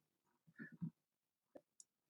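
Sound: keyboard typing clicks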